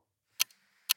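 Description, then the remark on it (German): Two sharp mechanical ticks about half a second apart, each followed by a faint softer echo click, the ticking of a timer counting down a timed task. “Oh ähm, dann hört ihr gleich ein Ticken, was uns alle noch nervöser machen wird.”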